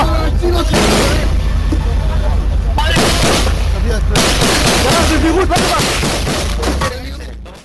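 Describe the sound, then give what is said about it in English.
Loud, chaotic gunfire crackles nonstop with heavy explosion booms and sharp cracks of bullets whizzing by overhead, harsh, while indistinct voices shout beneath the barrage before it fades at the end. “I just wanted you to sort of have just a clip of that as you hear bullets just whizzing by them.”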